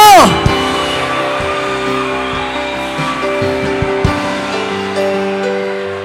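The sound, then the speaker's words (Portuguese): A large church audience roars and shouts together in a loud, sustained wave of cheering in response to a preacher's call to make noise, with scattered high cries rising above the din for several seconds. “Se você é de Cristo, faz barulho no teu lugar.”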